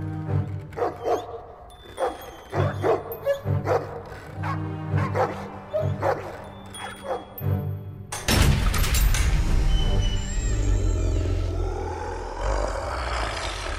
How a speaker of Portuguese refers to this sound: Quando eu vejo que, que o barulho dos cães tá, tá terminando, eu volto a fazer um barulho de cães mais alto ainda, como se eu estivesse arranhando na madeira.